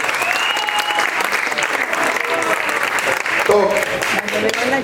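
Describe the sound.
An audience applauds steadily, a dense wash of clapping hands that holds at an even, fairly loud level for the whole stretch, with a few tonal voice fragments mixed in.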